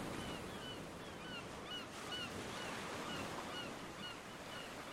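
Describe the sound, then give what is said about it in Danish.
Steady, full wash of ocean surf rolling onto the shore, with many short bird calls chirping and honking faintly overhead throughout. “Anne-Marie er ved havet og overvældet og tryllebundet af dit storhed”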